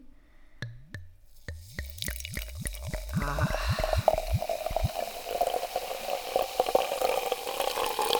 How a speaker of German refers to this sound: Warte mal, ich, ich möchte das kurz, ich muss mir kurz mal was einschenken.